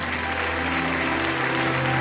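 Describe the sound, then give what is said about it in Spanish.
An audience applauds to celebrate the Lord, dense clapping from many hands at an even, sustained level with a faint hum beneath. “Alguien tiene que aplaudir y celebrar más que eso.”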